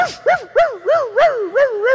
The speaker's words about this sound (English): I asked the stewards, Is the dog out of the cage? yes, sir. Oh, isn't he cute?